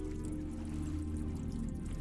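Water trickles and seeps steadily into a sunken submarine wreck more than 100 metres under the surface, in a low, muffled wash, with a dull enclosed rumble underneath and faint drips. The sound stays quiet and continuous, with no voices.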